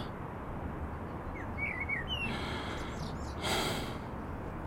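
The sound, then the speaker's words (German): A few short, thin chirps from blackbirds sitting in a porch canopy sound in quick succession, half buried in a steady rushing background noise, followed by a brief breathy burst. “Im Vordach sitzen die Amseln und spüren's.”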